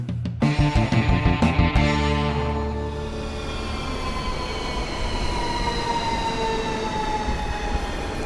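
A train rolls past, its wheels clattering rhythmically at first, then giving way to a loud, sustained metallic whine and squeal of wheels on rails. No one speaks.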